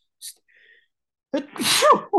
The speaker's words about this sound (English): sorry. Oh, bless you.